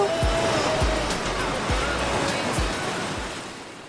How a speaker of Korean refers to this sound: 음, 파도 소리 들으니까 아, 진짜 바다 앞에 와 있는 것처럼 기분이 싹 좋아지네요.